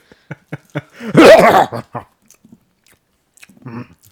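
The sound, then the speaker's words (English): A pet chews and crunches food, starting with a few sharp bites, then a dense burst of crunching and smacking, trailing off into softer, scattered chewing sounds. “Oh, you're eating. Makes sense. I hate that noise.”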